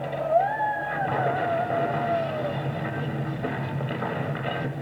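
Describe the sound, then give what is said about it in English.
A six-wheel truck's heavy engine rumbles steadily and loudly throughout, while a high tire screech wavers and slides downward over the first couple of seconds before fading under the continuing roar. “Personally, I think it's rather impressive that we're out running a six-wheel truck.”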